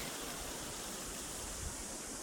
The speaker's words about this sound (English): A waterfall in three parts feeds the river.